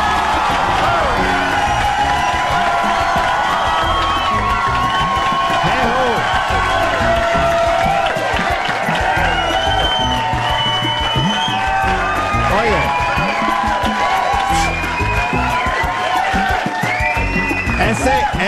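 Loud, continuous shouting and cheering by a red-haired man fill the whole stretch, with excited whoops rising above a noisy crowd and some scattered clapping, intense throughout.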